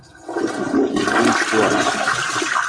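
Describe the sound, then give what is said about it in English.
A toilet flushes, a loud rushing swirl of water that starts abruptly and churns steadily for a few seconds with no voices over it. “You're getting Ross, flushed.”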